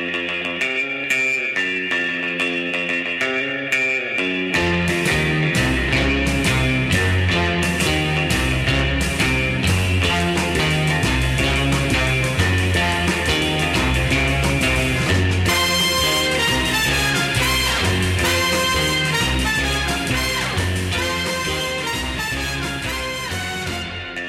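A brassy early-1960s instrumental film theme plays loud and continuous, with a twangy lead over driving drums and bass, building into a full band section about midway with no voices.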